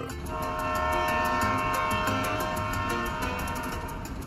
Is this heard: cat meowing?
no